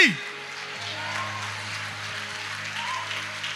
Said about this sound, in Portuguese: E os que creem aplaudem e ficam de pé e dê um glória a Deus bem forte, meu irmão.